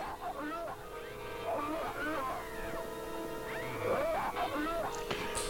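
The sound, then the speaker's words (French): A voice makes mouth-made monster sound effects for an alien creature in a film: a run of strained, wavering groans and whiny cries that slide up and down in pitch, fairly loud and continuous over a thin, hissy background. “Écoutez bien les, bruitages aussi faits à la bouche.”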